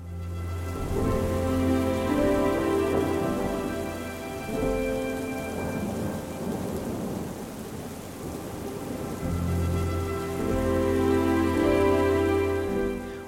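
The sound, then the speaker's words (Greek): Steady, dense rain pours down continuously with a full, hissing wash, blended with a low sustained tonal hum, and no voices present. “Όλη μέρα κατακλυσμό και προς το βράδυ νερό και χαλάζει.”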